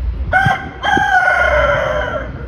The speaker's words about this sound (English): who would keep a rooster in the Tenderloin?